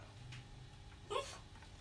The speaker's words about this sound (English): Four amps, one guitar, cables everywhere, a dog barking, complete mayhem.